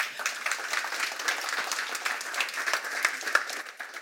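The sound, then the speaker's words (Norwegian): An audience applauds a speaker whose time has run out, many hands clapping in a dense, continuous patter that holds at an even loudness throughout, with no voices standing out. “Gi ham en god applaus.”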